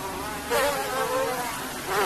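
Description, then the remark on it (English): A dense swarm of mass-produced, lab-bred mosquitoes being reared to give eggs for release into the field, buzzing steadily, a continuous high-pitched whine that swells louder in waves, with no voices. “And then over here, we have the mass produced mosquitoes getting ready to give us the eggs to go out directly into the field.”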